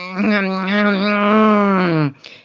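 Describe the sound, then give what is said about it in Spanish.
A person's voice imitates a bear grumbling in a cave, a single drawn-out, steady groaning tone lasting about two seconds, fairly loud, ending with a brief breathy trail. “De pronto oyó un gruñido y un rezongo”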